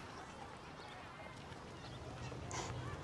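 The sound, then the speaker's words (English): A dog gives a single short bark near the end, rising briefly above a steady, noisy background hiss; a faint voice may be present. “Even your dog agrees.”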